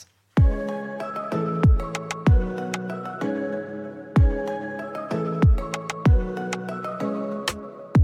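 An instrumental pop intro plays loudly on its own: deep, punchy kick hits land in a steady, repeating pattern beneath sustained keyboard chords, with no singing yet.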